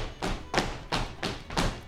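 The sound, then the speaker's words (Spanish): Heavy foot stomps of a basic three-beat Mexican folk zapateado, danced almost in place, about five solid strikes in a steady, even rhythm on a hard floor, with no talking. “Y esto se convierte en un zapateado básico para el folclore mexicano, que es un zapateado de tres tiempos.”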